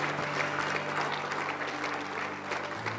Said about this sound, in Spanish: Vamos, dele fuerte aplauso al Señor.